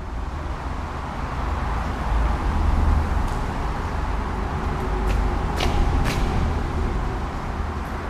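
A steady, dense roar of traffic on the A5 motorway, heard while walking underneath it, with heavy low rumble and a hiss of tyres, swelling slightly as vehicles pass overhead, with a few sharp high squeaks or clanks cutting through.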